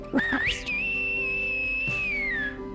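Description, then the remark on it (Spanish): A taxi driver whistles loudly to a young woman approaching the taxi: a couple of quick rising chirps, then one long, steady high note held for about two seconds before sliding down slightly, with no talking. “Sin embargo, al verla darse media vuelta y acercarse al taxi, le dio miedo dejarla ir y silbó.”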